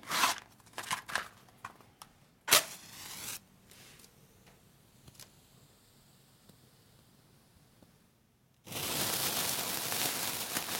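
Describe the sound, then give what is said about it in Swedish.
Rustling and scraping as a matchbox slides open, then one sharp, bright strike as a match catches, a quiet stretch, and finally a steady loud hiss of noise. “Det ska gärna vara stor och så det här ljudet och så drar man ut den.”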